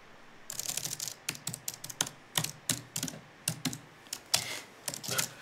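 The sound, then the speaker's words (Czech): Rapid typing in WordPad on a laptop keyboard with typewriter sound effects switched on: crisp typewriter-style clacks, a steady run of sharp keystrokes in irregular bursts, with no voices. “Máš ještě zaplý zvuky je? Eh? Eh, psacího stroje v tom?”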